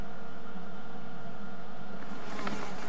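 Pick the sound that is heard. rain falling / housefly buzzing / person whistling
housefly buzzing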